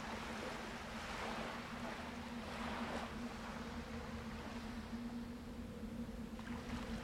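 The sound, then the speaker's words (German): Waves wash steadily onto a beach in a continuous, fairly quiet rush of surf with soft swells, accompanied by a low, constant droning hum underneath. No one speaks. “Sie schaut den Wellen zu, hört, wie sie an den Strand schlagen.”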